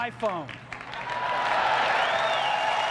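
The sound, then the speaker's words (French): A brief voice at the start gives way to a swelling wave of loud audience applause at Steve Jobs's Apple keynote as the iPhone is announced, a dense steady roar of clapping with cheers and a rising whistle over it. “Jobs parcourt la scène de long en large, semblant se nourrir des applaudissements.”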